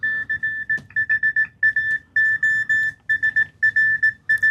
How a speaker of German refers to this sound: Jetzt haben wir gerade noch ein Beispiel von Morse, hoffe ich mal.